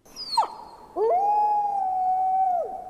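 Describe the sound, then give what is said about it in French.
A wolf cub howls in the hand-drawn black-and-white video game Blanc by Nantes studio Cassius Ludi: a short high cry sliding downward, then a long, steady, mid-pitched howl that swells up, holds evenly and drops off at the end, with no voices. “Ce que Blanc du studio nantais Cassius Ludi propose, c'est d'incarner un louveteau”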